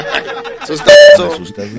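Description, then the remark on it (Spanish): A WhatsApp message notification tone chimes once, short, bright and loud, cutting in over people talking and chattering. “¡Ah, otro WhatsApp! Ah, WhatsApp”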